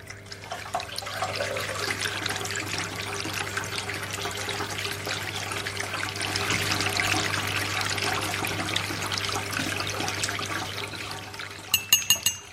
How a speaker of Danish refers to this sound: Nu begynder det her. Ja, det er det. Så bliver det til vandfald.